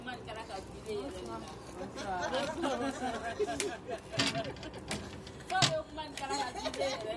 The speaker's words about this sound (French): À la porte de l'hôtel, les femmes se réunissent avec leurs enfants. Pendant que les enfants jouent, les adultes bavardent. Ils profitent d'un instant de calme.